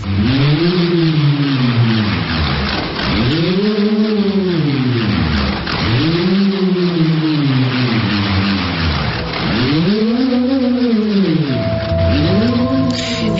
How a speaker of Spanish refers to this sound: en el ritual normalmente que intentan a través de este sonido eh, ponerse en contacto con el más allá y con sus, ancestros a través del, sonido de la propia madera que bueno, es, es, como si ahora escucharemos un, un zumbido.